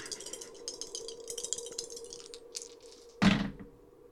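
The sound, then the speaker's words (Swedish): Dice rolled for a willpower check in a game rattle and clatter in a rapid, uneven burst of small clicks for about two seconds, then a single louder thunk as they come to rest. “Minus en tärning för Ja. kritisk.”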